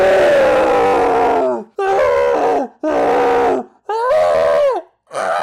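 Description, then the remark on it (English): A person lets out a string of loud, frustrated screams, about five drawn-out cries in quick succession, each sliding downward in pitch, with no talking. “I think I heard someone scream in frustration.”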